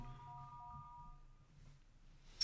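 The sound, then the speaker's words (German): A short melodic mobile phone notification chime of a few sustained, bell-like tones rings out clearly, fading after about a second, followed by a brief noisy rustle. “So, ich hätte natürlich den Ton von meinem Handy ausmachen sollen.”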